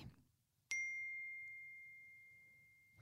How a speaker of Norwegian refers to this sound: Oi nå har jeg fått en melding.